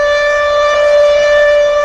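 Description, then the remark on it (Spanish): A loud, steady siren wail holds a single sustained pitch with bright harmonics for about two seconds, a spoiler alarm sound effect with no voices over it. “Escucha la alarma. es la alarma de spoilers.”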